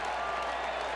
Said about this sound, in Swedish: And that brings out the cheers here at Angel Stadium.